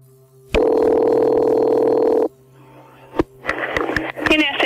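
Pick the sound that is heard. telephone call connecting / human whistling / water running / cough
telephone call connecting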